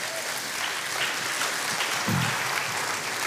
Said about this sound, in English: All right, let's hear it for